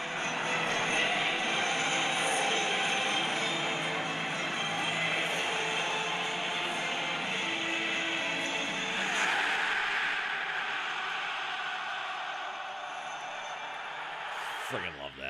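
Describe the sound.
A huge stadium crowd in Milan, Italy, at a Champions League football night roars and chants continuously, thousands of voices blending into a dense, steady wall of sound that stays loud throughout before a brief shuffle at the very end.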